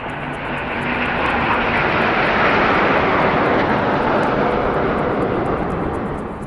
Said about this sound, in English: They looked on as a flypast of 70 aircraft, old and new, filled the skies over the Mall.